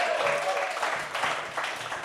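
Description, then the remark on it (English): An audience at a show applauds for audience members from Sweden, dense, continuous clapping holding at a fairly even level for a couple of seconds, with a brief higher cheer or whistle early on. “Round of applause for Sweden, everybody!”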